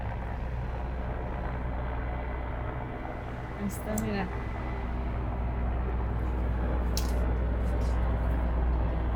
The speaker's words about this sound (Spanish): Un helicóptero.